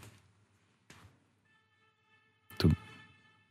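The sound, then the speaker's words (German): A car horn sounds in a long, steady, thin-toned blast, faint and tinny as heard over a caller's phone line, with a few clicks before it and a loud rough burst partway through. “Ups, hier hupt jemand, aber Tobias ist weg.”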